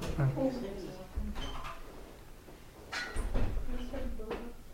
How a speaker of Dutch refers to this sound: wil je die deur dicht doen?